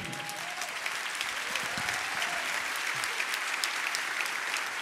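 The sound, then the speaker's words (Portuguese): Steady, sustained applause from an audience for Christ, a dense wash of many hands clapping at an even loudness throughout, with no voices standing out. “Esse é o Cristo, pode aplaudir.”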